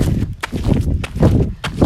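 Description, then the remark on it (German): Steady hoofbeats of a ridden horse walking, with regular dull thuds over a low rumbling background and no talking. “Jetzt nehme ich ihn hoch und ah, jetzt gehen wir auch schon wieder.”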